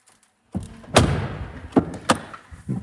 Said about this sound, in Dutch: Zullen wij het portier eens een keer dichtgooien? Nou, dat kan ook. Trek jij even wel je je been terug. Ja, maar dan zet ik mijn voeten tussen. Precies, daar gaat hij. Daar gaat hij.